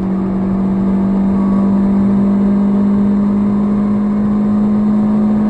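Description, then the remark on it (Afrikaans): A small Chevrolet Spark 1.2 LS hatchback engine drones steadily, holding a loud, sustained hum with a faint rising whine as it is pushed through the gears under acceleration. No voices. “En die masjien raak lawaaiig wanneer jy hom druk in die ratte of afrat om jou spoed te handhaaf.”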